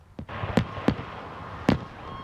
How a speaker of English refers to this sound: The loud bangs of fireworks are usually a sign of celebration, a sight many have come to expect on Canada Day.